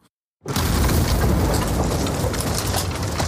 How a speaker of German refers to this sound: Wie angewurzelt bleiben die drei Männer stehen und kurz ist es fast wieder still dann kracht es laut und das Eis, auf dem sie stehen, bricht vom Festland ab.